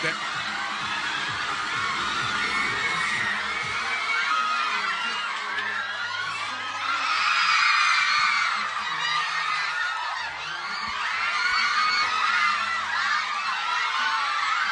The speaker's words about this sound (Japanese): 聞こえないねもう聞こえない声援で